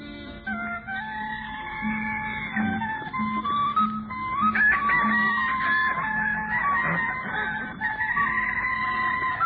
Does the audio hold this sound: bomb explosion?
no